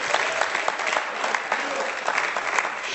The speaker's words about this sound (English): And she, go ahead, you can clap. There, she's still here. She is.